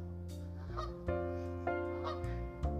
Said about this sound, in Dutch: Waar een gans eh, me aankijkt van wat ben jij hier aan het doen? Gluk, gluk, gluk. Ga weg.